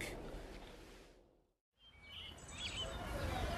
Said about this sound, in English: Those birds just singing away, no matter what else is going on. I've heard their songs on rainy and gloomy days and they always make me feel better.